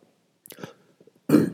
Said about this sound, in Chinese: 不好意思吼，咳嗽。